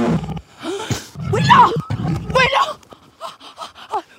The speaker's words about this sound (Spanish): Un altavoz portátil con una bandolera de transporte y más de dos horas de rugidos de tigres y tigresas en celo.